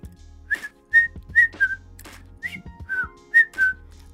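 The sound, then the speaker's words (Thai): A bright, jaunty whistled tune of about eight short notes, bouncing in a lively, tripping rhythm over a low sustained hum, clear with no voices; the main theme from the first movement of Shostakovich's Symphony No. 9. “อารมณ์ของคนที่เอามือล้วงกระเป๋าแล้วผิวปาก แล้วก็เดินชมนกชมไม้”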